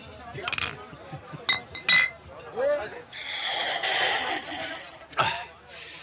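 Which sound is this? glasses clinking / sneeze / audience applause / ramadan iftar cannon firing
glasses clinking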